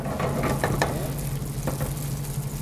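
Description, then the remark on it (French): Stale bread sizzles steadily in hot olive oil in a frying pan, a continuous frying hiss with scattered small crackles and pops over a low, even hum, with no voices. “Frigolare, ça veut dire euh, quand ça fait ce bruit euh, de friture dès que le hmm. pain touche l'huile.”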